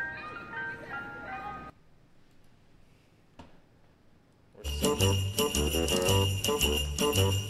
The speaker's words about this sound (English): Everybody sing it. Everybody sings this song. I can't wait to hear this.